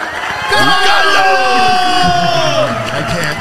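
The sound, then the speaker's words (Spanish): A crowd cheers loudly and steadily, with many overlapping voices whooping and shouting in high, rising tones over a dense bed of applause-like noise. “Me los, aplausos, por oh, supuesto.”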